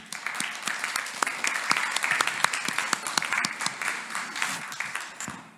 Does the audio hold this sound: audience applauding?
yes